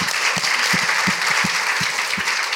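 A crowd claps in dense, steady applause after 20 hours of live broadcasting, with a few louder individual claps punching through the wash of hand claps. Fairly loud, with no voices.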